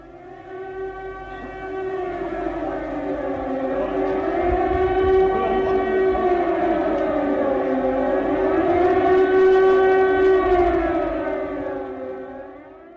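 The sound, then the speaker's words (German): Air raid sirens wail in a long, rising and falling tone, with overlapping sirens drifting slightly out of step for a layered, mournful sound. They fill the scene steadily before fading at the end. “Ich frage jetzt nicht, was es ist, weil es ist, glaube ich, offenkundig. Es sind Sirenen die Frage ist, hast du schon von jemand gehört aus dem Land, aus der Ukraine, die oder der diese Sirenen und solche Sirenen vielleicht gerade gehört hat?”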